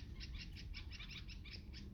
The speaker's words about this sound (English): No, no the, the birds are agitated.